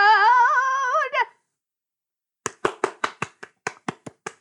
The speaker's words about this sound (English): Is that is that a round of applause? Yes. I like that it went around.